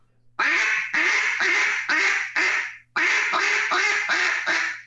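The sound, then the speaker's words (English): A duck call imitating a duck, blown loud in two quick runs of about five short, abruptly clipped quacks each, the air cut off too soon, with a brief pause between the runs and no talking. “give me an example in, in your duck call of cutting your air off too soon.”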